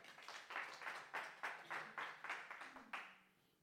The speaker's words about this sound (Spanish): Un fuerte aplauso para nuestro Señor, vamos a orar.